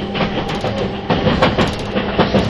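A 651 series express train, the Super Hitachi No. 66 from Sendai to Ueno, runs steadily. Its dense rumble of motor and wheel noise is broken by periodic clacks of wheels crossing rail joints, with no voices present.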